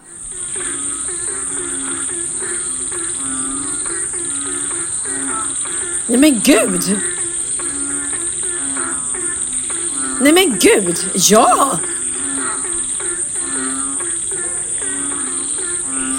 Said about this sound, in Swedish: jag tror på riktigt då att grodorna hade körkväll eller någonting